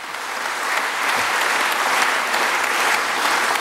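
Sustained audience applause, a steady dense patter of many hands clapping at an even, fairly loud level throughout, with no voices over it.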